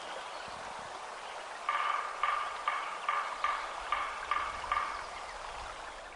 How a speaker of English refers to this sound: And coming up is the sound of a woodpecker.